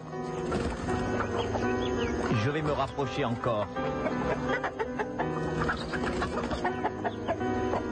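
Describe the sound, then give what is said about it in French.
Chickens and roosters in a henhouse behind a house cluck busily and continuously while a man speaks quietly over the flock's steady chatter as he tries to catch a big rooster. “Je vais attraper ce gros coq-là.”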